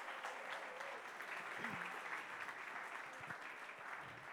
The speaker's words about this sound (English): But round of applause for our kids. You've been fantastic. Thank you.